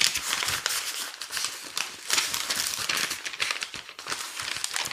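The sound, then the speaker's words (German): Paper pages of a menstrual calendar being flipped through, a steady run of crisp, papery rustles and crinkles with quick bursts as sheets turn, fairly soft and with no one talking. “warte mal, ich gucke jetzt mal in meinen Menstruationskalender.”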